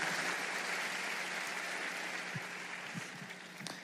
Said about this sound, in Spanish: que les demos un fuerte aplauso al Señor por sus vidas.